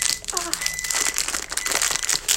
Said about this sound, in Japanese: ビスケットを粉々に砕く音がね音がだいぶでかいので。